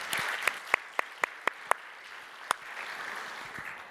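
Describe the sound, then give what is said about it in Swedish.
An audience applauds to welcome three young people from Klara teoretiska gymnasium, a steady patter of many hands with a few sharp, louder claps standing out in the first half before the clapping thins and fades. “Vi klappar om dem här, så ni är speciellt välkomna.”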